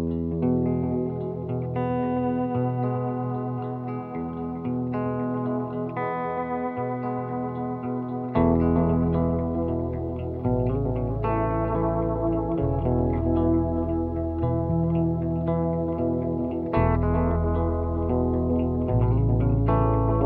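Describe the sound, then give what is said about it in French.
The first song of an album, an instrumental rock track, plays steadily, with heavily effected, distorted guitars layered with chorus and echo over a driving bass line, getting fuller and louder about halfway through. No one speaks. “la, première chanson euh, de l'album s'appelle euh, …, et on peut écouter un extrait”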